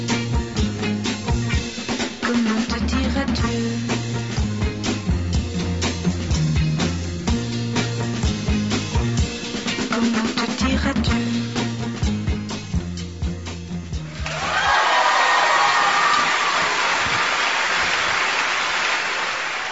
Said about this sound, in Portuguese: Após mais uma noite de glamour e sucesso, ela agradece os aplausos.